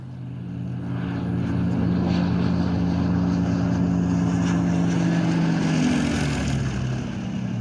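A propeller plane drones steadily overhead, its low engine hum with layered harmonics swelling in after the first second and holding loud and continuous, no voices present.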